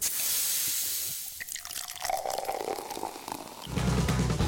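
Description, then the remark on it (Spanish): A bottle of 7-Up lemon-lime soda opens with a sharp fizzing hiss, followed by liquid pouring and bubbling, the pitch rising as it fills, ending with a low steady hum. “Escuchar el siguiente sonido puede ocasionar unas ganas incontrolables de destapar una 7-Up.”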